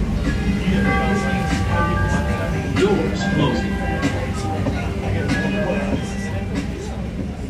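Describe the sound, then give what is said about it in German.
A steady, loud rumble from inside a moving commuter train carriage in Chicago, travelling from the Oak Park neighbourhood toward the city centre, with constant low mechanical drone, faint tonal hum and indistinct voices or a man's loudly played music mixed in throughout. “Die Strecke führt uns etwa eine Stunde lang vom Stadtteil Oak Park, wo unser Airbnb liegt, in Richtung Zentrum.”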